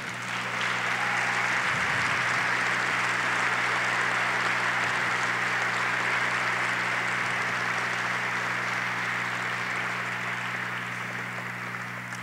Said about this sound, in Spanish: Dale un fuerte aplauso.